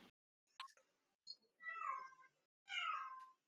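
A cat meows twice, each call drawn out and wavering, preceded by a few brief clicks and a short chirp, with no talking over them.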